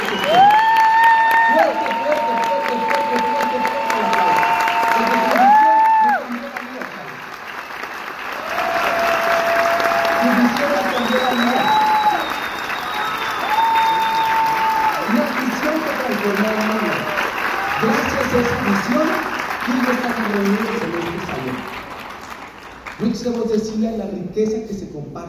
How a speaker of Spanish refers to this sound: Así que honor a quien honor merece. Ayúdenme a darles un fuerte aplauso